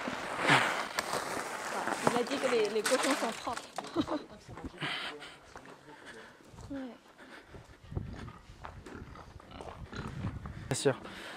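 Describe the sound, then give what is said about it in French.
Pigs grunting and squealing at feeding time as they are given ground cereal feed, a dense overlapping chorus with clattering and shuffling throughout, plus occasional sharp squeals. “Donc là, les cochons.”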